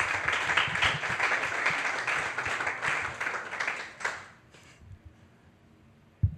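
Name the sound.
applause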